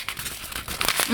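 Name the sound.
paper pages being turned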